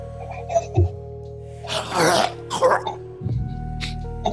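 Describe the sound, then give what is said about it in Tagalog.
A voice imitates someone hawking up phlegm to spit: two harsh, raspy throat-clearing bursts, one long and one shorter, loud, with a faint hum in the background. “dumahak siya ng pagkarami-rami para duraan si Herman sa bibi”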